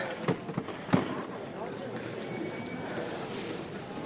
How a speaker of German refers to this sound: Ah, die Ausgangstür. Ach, da geht sie auf. Schnapper. Und schon sind wir auf der Straße.